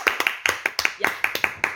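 Brief applause for a singer: a small group clapping in a steady, even rhythm, about five claps per second, with sharp bright hand slaps and no talking over it.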